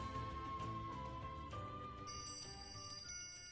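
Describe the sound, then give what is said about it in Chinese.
Bright, high wind chime notes ring out partway through on a sunny day as a young man walks in, over a soft, steady musical backdrop, with a couple of further tinkling strikes lingering near the end. No one speaks. “一天，阳光明媚，风和日丽，随着风铃悦耳的叮当响，一位英俊的小伙子迈着轻快的步伐走了进来。”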